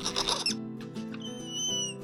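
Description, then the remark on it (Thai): A monkey climbing a tree in a forest calls: a noisy, chattering burst at first, then thin, high squeaky tones, moderately loud, over a steady low hum. No one speaks. “เมื่อเขาเข้าไปในป่าเขาก็พบลิงตัวหนึ่งกำลังปีนป่ายต้นไม้อย่างสนุกสนาน”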